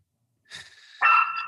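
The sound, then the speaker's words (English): A dog lets out a drawn-out, high-pitched bark that starts soft and then jumps louder about halfway through, ringing on for about a second with no one talking. “Freaking dog.”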